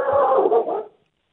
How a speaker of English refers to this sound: That's my dog on that's that's my dog on neighborhood watch because somebody's dog is loose in our front yard.